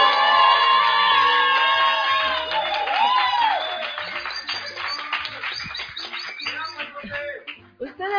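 A crowd cheers and whoops with many high-pitched voices shouting at once, then steady, scattered applause with a few lingering shouts: an ovation for 30 years of Altrote at Foro Cultural Altrote, Héroes de Chapultepec 217, Barrio del Encino.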